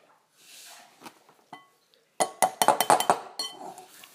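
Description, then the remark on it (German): A ceramic bowl clinks repeatedly in a kitchen while butter is being cut, with a quick burst of bright knocks and rattles after some quieter scraping and handling sounds. “Ihr hört jetzt gerade nur die Schüssel.”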